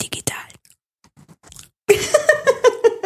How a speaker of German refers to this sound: so hört sich das auch, wenn man den Mikrofonkopf abschlägt.